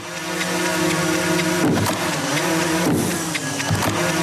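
Drone propellers buzz loudly and steadily, a constant whine whose pitch briefly dips and surges a few times as the rotors change speed. No one speaks.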